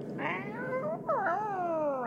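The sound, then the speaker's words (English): A cat lets out two long, drawn-out yowls, the second rising then falling in a wavering caterwaul, fairly loud with no talking. “Is that a cat?”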